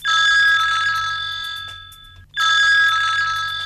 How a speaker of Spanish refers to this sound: Vemos al dueño de un estudio de diseño recibir una llamada.